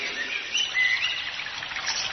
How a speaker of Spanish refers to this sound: En ella vamos a ver muchos árboles y plantas, flores, el canto de los pájaros, el perfume de las flores, de la brisa y de los árboles.